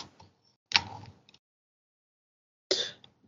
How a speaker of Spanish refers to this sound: me acerco a la puerta y llamo.